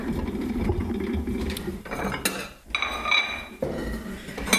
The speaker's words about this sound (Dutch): Dan zet ik de bordjes klaar.